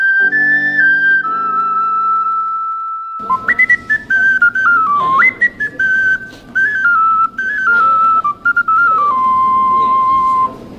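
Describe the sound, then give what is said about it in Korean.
A bright, clear ocarina plays a lively melody of pure whistle-like tones, first held notes over a soft low accompaniment, then a bouncy tune with quick steps between pitches. “이런 청량하고 상큼발랄한 이런 소리를 내는 악기도 있습니다.”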